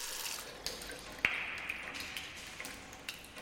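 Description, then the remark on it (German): Water runs steadily from a tap with a soft, continuous hiss, punctuated by a few bright plinks and drips, one sharper ping near the middle. Fairly quiet, with no voices. “Was da gerade aus dem Wasserhahn fließt, ist so klar und frisch wie kaum etwas anderes.”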